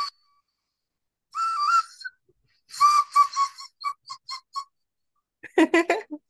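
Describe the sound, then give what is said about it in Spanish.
A series of bright, warbling whistles, a short whistle sound for people celebrating their birthdays: a rising phrase, then a quick run of short staccato notes, ending with a lively trilling flourish. No talking. “Hay un, un silbidito para los que cumplen años, ¿no?”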